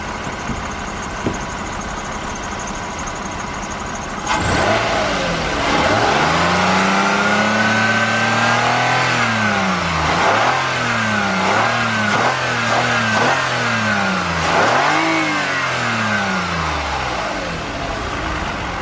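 A Toyota 2GR-FE V6 engine in a Toyota Highlander, at a basketball court on a very cold day, catches after a few seconds of low hum, then revs repeatedly in a series of loud blips, its pitch swelling and falling each time, with no talking.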